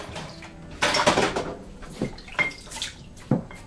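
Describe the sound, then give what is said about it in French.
Dishes being washed by hand under running water: a steady faucet hiss broken by several splashes and clinks of plates and utensils at irregular intervals, no voices. “Pourquoi tu fais ça à la main d'ailleurs T'as pas une machine”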